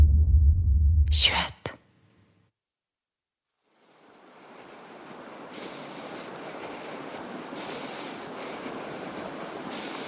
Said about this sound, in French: La cascade.